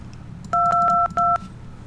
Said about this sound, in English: Looks like the numbers are going there. I can hear the DTMFs.